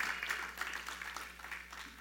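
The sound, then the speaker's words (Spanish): An audience claps for Jesus Christ in a steady, dense wash of applause, many hands overlapping with a crisp, hissy texture that holds fairly even for a couple of seconds without any voices rising above it. “Hermanos, ¿cuánto le dan un aplauso a nuestro Señor Jesucristo?”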